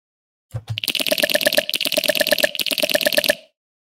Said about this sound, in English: Um, but then I also made like a wood creaky noise um, here as well. So like I'm guessing this is the synthesized version of that.